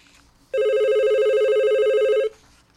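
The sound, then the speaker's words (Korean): A telephone rings with a single steady electronic tone lasting almost two seconds, bright with stacked harmonics and slightly warbling, loud and alone with no voices. “아무런 영문을 모르는 그녀는 전화를 수십 수백 통하였지만 난 전화를 받지 않았습니다.”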